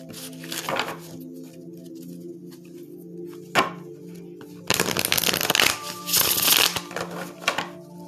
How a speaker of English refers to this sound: I'm like shuffling them really good because I like reset my tarot deck. So it's like if I was shuffling them for the first time again.